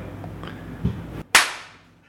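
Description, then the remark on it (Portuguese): A single sharp, loud slap cracks out after a moment of silence and trails off in a brief decay, with low background noise before it. “Tapa e vai.”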